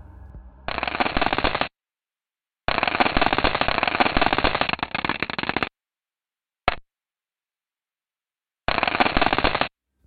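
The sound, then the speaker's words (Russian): Dense bursts of rapid rattling clicks of comet dust particles hitting the American automatic probe Stardust as it flew through a comet's coma collecting samples, in several loud stretches of a second or more, with silent gaps and one very short burst between them. “Это звучание а, полевых частиц, которые ловил зонд Stardust”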